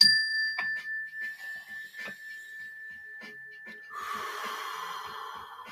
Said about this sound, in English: When you hear the mindfulness bell that I have right here, let's all just stop, remember where our feet are currently planted, and remember that this moment is all we have. Let's take a slow, deep breath at the sound of the bell.